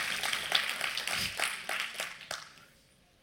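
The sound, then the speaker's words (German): A brief spell of clapping from several people, a dense patter of hand claps that is fairly quiet and fades out over a few seconds, ending with one last clap. “So klatschen, genau.”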